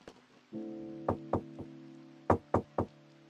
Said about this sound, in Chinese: 咦，又有敲门的声音